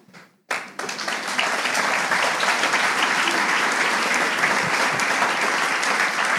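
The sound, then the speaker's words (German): After a brief quiet moment, an audience bursts into sustained applause, a dense, steady wash of many hands clapping that stays loud and even to the end. “Ja, das Extremste, was wir hinkriegen, ist Klatschen.”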